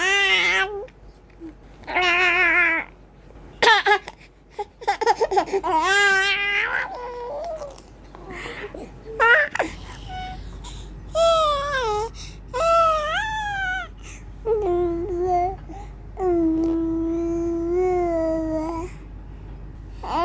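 A baby babbles and whimpers in a string of short, high, wavering vocal sounds with brief pauses, some rising into cry-like squeals, with no adult speech.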